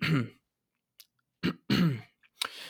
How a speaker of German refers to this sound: mir scheint es so, dass, dass gebildete Leute sich anders räuspern als weniger gebildete. Äh, ich würde mal sagen, so gebildete, die machen so.